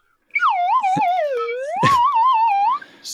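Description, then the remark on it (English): A slide whistle warbles loudly, swooping down in pitch, then climbing and wobbling back up, with a few sharp knocks in between, for about two and a half seconds. “A unicorn playing a slide whistle”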